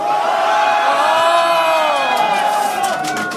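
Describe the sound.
A huge crowd of about 200,000 people at a candlelight rally at Gwanghwamun roars and cheers in a sustained, loud wall of voices, with many overlapping shouts and whoops rising and falling together.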